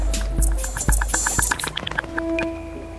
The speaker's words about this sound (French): Ouf Il ne faisait que passer. Ça n'était pas un bateau de pêche, mais certainement un navire de touristes. Et si ce boucan continue, on mettra les voiles.